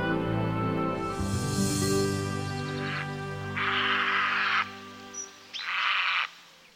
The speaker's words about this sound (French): Brève de nature sauvage à Paris. Aujourd'hui, le héron cendré.